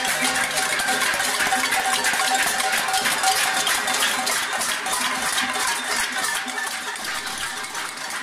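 A dense, continuous jangle of many cowbells clanking on livestock in the valleys of the Pyrenees, loud, with overlapping metallic rings and no pauses or talking throughout.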